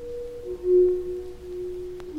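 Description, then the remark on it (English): Sustained, mellow organ-like tones ring out from stalactites struck in the Luray Caverns, a recording of Leland Sprinkle playing the great stalactite pipe organ; one note swells then fades as a fresh tap sounds near the end, with no voices present. “And what you're hearing now is a recording of Leland himself playing the stalactite pipe organ in the Luray Caverns.”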